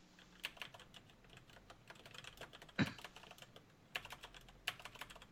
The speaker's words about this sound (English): Hold on. I'm still typing.